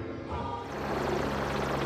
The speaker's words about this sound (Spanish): Actualmente, el trayecto lo realizan en helicóptero. Así se integran a las labores en la estación de investigación montada en un gran llano congelado.